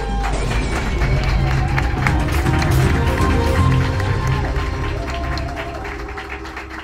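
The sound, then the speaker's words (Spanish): Audience applause welcoming the presenter of the Flash Paranormal news segment: a dense, steady wash of many hands clapping with scattered cheers and crowd voices, holding loud for several seconds before easing off slightly at the end. “Adelante, un gran aplauso para ella.”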